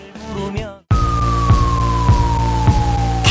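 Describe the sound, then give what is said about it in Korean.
After a brief burst of music, an ambulance siren sounds loud, one long slowly falling wail over a heavy, rumbling engine. “아기 낳을 때 남편이 없어서 구급차 불렀는데 너무 친절하게 해주셨어요.”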